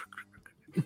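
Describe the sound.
A voice briefly imitates the squeaky, smeary sound of shaving cream being wiped off a microphone, with a few nasal, quack-like squeaks ending in a louder burst, short.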